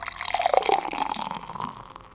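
Water pours into a drinking glass during a prayer in a steady stream, with a bright gurgling ring that rises slightly in pitch as it fills, then tapers off near the end.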